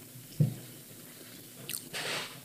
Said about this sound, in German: Außerdem meinte sie vorhin ganz unverschämt, ich soll nicht ins Mikrofon schmatzen. Was soll ich immer schmatzen?